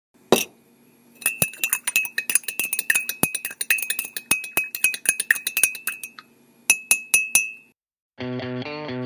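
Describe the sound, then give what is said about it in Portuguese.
A spoon clinks rapidly and steadily against a coffee cup, bright, pauses, then taps a few more times before a short burst of music begins. “Opa, hora daquele cafezinho.”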